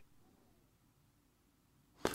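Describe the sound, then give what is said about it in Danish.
A guest's call audio drops out: about two seconds of near-silence with only a faint low hum, then an abrupt, loud burst of crackling noise at the very end. No one speaks. “Nå, nu tror jeg lige, du røg ud der et øjeblik, øh,”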